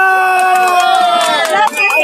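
A crowd, called on by the host for loud applause, cheers and shouts loudly and without a break, sustained whoops ringing over a wash of scattered clapping, with a short dip in volume just before the end.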